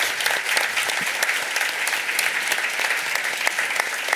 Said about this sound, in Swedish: Nu tar vi en applåd till.